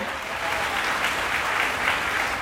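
An audience claps steadily for a couple of seconds, applauding BodyKey, a dense, even wash of many hands with no one speaking and no clear pauses.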